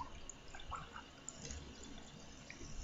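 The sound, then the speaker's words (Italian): Someone takes a quiet sip of water: faint liquid sloshing and a few soft swallowing sounds over low background hiss, with no talking. “allora, perdonate che bevo un goccio d'acqua.”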